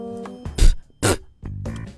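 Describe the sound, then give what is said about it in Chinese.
Two short, sharp spitting bursts, hissy and forceful, separated by throaty voiced grunting noises that sound like a mouth working up to spit, illustrating the spitting habit of the little monster Lu Zhazha in a children's story. “他有一些让人特别恶心的臭毛病，比如打嗝、放屁、吐吐沫。”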